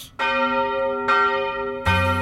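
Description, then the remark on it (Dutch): A blacksmith's hammer strikes metal three times at a slow, uneven pace, with a glowing hot iron bar lying before him. Each loud clang rings on with a bright, sustained bell-like tone that overlaps the next. No voices. “Het is de smidmaar die met zijn hamer slaat.”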